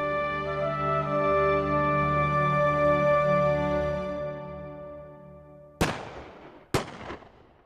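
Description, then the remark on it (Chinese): A sustained, humming tonal drone fades out, then two loud, sharp blasts crack about a second apart, each trailing off in a brief rumbling decay: huge explosions amid scattered gunfire at midnight. “午夜时，零星的枪声中，突然传出巨大的爆炸声，连续数声震彻云霄。”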